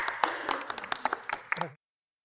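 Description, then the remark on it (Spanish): A short burst of audience applause for a departing guest before a break: many overlapping claps in a dense, irregular patter with sharper individual slaps, lasting under two seconds before cutting off abruptly to silence. “Un aplauso para Gracias, nos vamos a un corte.”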